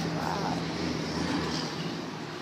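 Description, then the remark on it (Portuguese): A bus passes by outside, its engine rumbling in a steady low drone that fills the whole moment, fairly loud and continuous. “nossa, passei tá ônibus aqui agora.”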